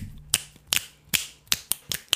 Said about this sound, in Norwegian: Nei, det, må, det er bare en trampeknips.